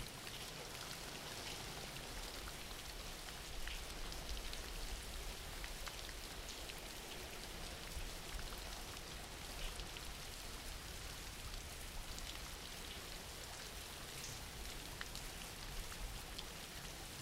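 Steady rain falling, a dense, even hiss of drops with no pauses or changes in intensity, soft in level and with no voices or other sounds over it.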